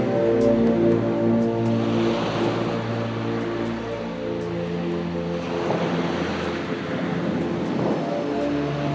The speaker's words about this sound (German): Ich höre das stetige und wohltuende Geräusch der Wellen, die in ihrem wunderbar gleichmäßigen Rhythmus an den Strand spülen.